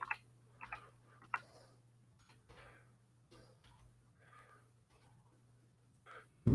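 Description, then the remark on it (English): Scattered, irregular clicks from someone typing on a computer keyboard while signing in again, soft, with quiet pauses between bursts over a low steady electrical hum. “Can't hear my keystrokes, right?”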